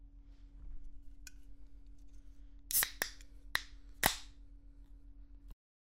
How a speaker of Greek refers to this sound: Κοίτα, υποτίθεται ότι ανοίγω ενεργειακό ποτό